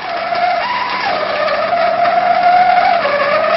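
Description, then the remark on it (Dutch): Pressurised water in a boiler with a broken sensor forces its way through a blocked outlet one minute into a test, making a loud, continuous shrill squeal whose pitch wavers and briefly jumps higher before settling again, with no voices. “Na één minuut probeert het water een uitweg te vinden die hoorbaar krap is.”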